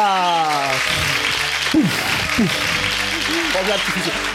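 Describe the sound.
An audience applauds a guest being introduced, in a steady, dense wash of clapping that runs the whole clip, with voices and tonal sounds rising over it.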